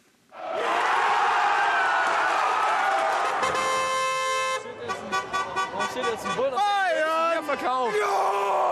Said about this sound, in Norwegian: Ut ifra feiringa skulle man nesten tro at laget allerede har vunnet Mesterligaen. For etter den høydramatiske semifinalen var det full fest i Münchens gater.